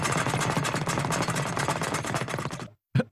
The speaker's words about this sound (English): punching the speed bag outside.